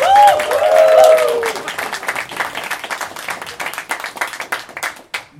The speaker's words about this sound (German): Äh, also nochmal Applaus bitte.